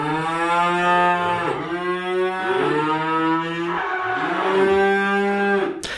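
Cows moo in a long, drawn-out chorus, several loud lowing calls running into one another for about six seconds, with no talking.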